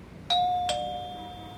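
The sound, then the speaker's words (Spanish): An apartment building doorbell, pressed at a button panel beside an intercom speaker, rings out loudly with two quick chime strikes, ding then dong, each leaving a bright tone that slowly fades over a quiet background, with no voices. “Sonó el timbre con fuerza.”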